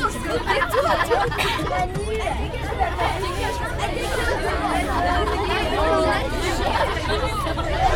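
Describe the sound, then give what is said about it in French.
A lively group of visitors chatters at once, a steady, dense babble of overlapping conversation for the whole stretch. “On se calme un petit m'écoutez là Oh Bon alors, on va commencer la visite.”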